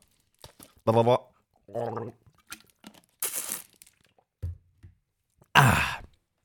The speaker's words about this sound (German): Und darum, Freunde, nehme ich jetzt einen Schluck Wasser.